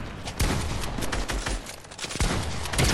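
Rapid bursts of video game gunfire crackle loudly and continuously, with sharp repeated shots piling over one another in a dense, chaotic volley.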